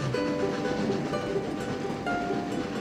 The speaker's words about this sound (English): Let's imagine that our train begins to pick up speed as it moves up and down and over mountains and through a tunnel going underneath the ocean.